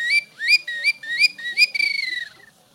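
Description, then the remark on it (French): A small wooden whistle imitates a nightingale: several rising, looping high chirps followed by a rapid trilled warble that fades out. No one speaks over it. “Il avait appris à imiter les oiseaux avec, euh, avec ce petit sifflet. Alors s'il y a des ornithologues, euh, le rossignol, on me dit.”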